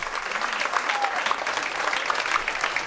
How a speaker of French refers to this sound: pendant le spectacle, pas une mouche ne vole, hein, pas une mouche ne vole pendant cette performance de corps, je dirais, transcendée tous les soirs à 21h40 avant l'explosion d'applaudissements.